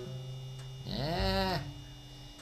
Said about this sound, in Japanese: もしかしたらずーっとね、ブーン。ち音がバックで流れてるかもわからんけど、これね、製氷機の音です。言い忘れましたが、製氷機。結構音、鳴ります。うん。冷蔵庫であの、たまにブーンって急に音鳴り出す時あるじゃないですか。いわゆるあの音がずーっと鳴ってます。